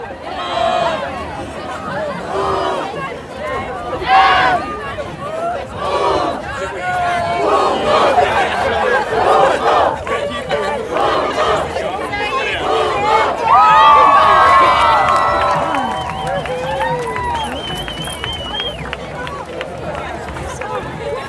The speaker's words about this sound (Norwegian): Når bygdepride-paraden går, står jeg på sida av gata og tar opp lyden av hele toget. Det tar nesten 20 minutter fra første til siste person har passert.